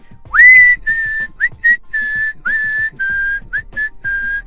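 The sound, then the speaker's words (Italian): A clear whistled melody, the whistled part from the film Kill Bill, played alone: long sustained notes alternating with short ones, several phrases opening with a rising upward slide, in a steady, slightly eerie tune. “Oppure Kill Bill senza quella parte fischiata.”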